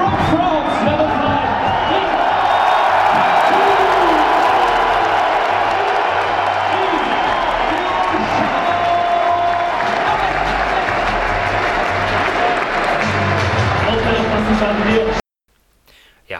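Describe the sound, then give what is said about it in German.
A large basketball arena crowd roars with sustained cheering and applause, loudly welcoming a player in front of his home crowd, a dense wash of clapping and shouting that stays loud for about fifteen seconds before cutting off abruptly. “Und ja, er wurde natürlich besonders laut empfangen.”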